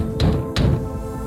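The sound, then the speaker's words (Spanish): Two heavy, booming knocks pound on a door about a third of a second apart, each thud resonating briefly in the room with no voices present. “Cada golpe en la puerta retumbaba en la habitación.”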